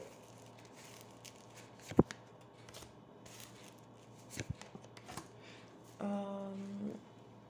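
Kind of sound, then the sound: household object, drawing cards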